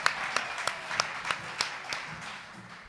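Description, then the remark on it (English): Light, sparse applause: a steady run of about nine sharp claps at an even pace over a soft hiss of scattered clapping, tapering off toward the end, with no voices. “How about a round of applause, huh?”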